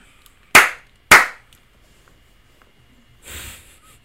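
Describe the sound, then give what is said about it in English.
Two sharp hand slaps about half a second apart, loud and crisp with quick decaying tails, followed after a pause by a softer brushing or rustling sound. “How many slaps we giving it?”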